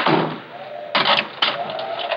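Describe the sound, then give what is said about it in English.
A closet door is pushed shut, with a rustle followed by two firm knocks as it swings into the frame and latches, over a faint steady hum. “I pushed her body into the closet next to the body of Mr. Field and closed the door.”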